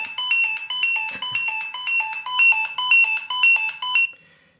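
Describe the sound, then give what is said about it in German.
Pagers worn on belts beep in a rapid, insistent pattern of short electronic tones, repeating steadily for about four seconds before cutting off, loud with no voices over it. “Und jetzt klingeln eure Piepser am Gürtel.”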